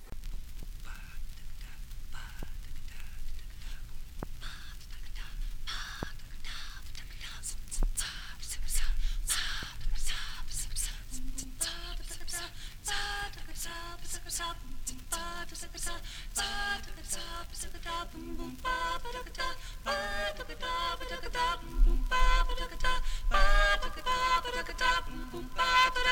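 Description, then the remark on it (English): Late-1960s experimental electronic music from a celebrated electronic music label, by a band put together for a one-off album: sharp clicks and breathy, whisper-like hisses over a low hum, with sustained pitched tones and denser layers building through the second half. “next we have some music from the Limelight Records label, a kind of celebrated electronic music uh, label of the uh, late 60s”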